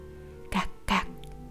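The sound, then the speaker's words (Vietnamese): Two short, raspy calls from ducklings just hatched from their eggs, in quick succession and fairly loud, over a quiet background hum. “cuối cùng cũng đến lúc hết quả trứng này đến quả trứng khác nở ra chiếc chiếc vịt con kêu và trong tất cả các quả trứng những chú vịt con ló đầu ra”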